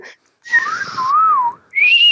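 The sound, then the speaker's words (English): A voice imitates a slide whistle: a loud, close whistled tone glides down, wobbles up and down, then swoops back upward in a second short burst, with no talking. “and get, get little man to play a slide whistle every time you.”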